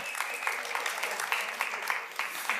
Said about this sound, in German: Danke, lieber Techniker. Applaus für unseren Techniker. Wow.